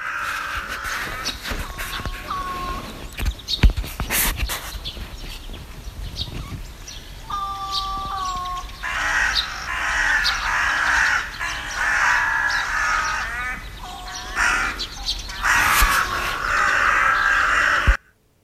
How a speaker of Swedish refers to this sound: Ja, det är en kråka som har ett speciellt läte.